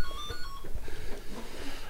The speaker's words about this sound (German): Eigentlich nur ein Koch, jetzt klingelt das Telefon.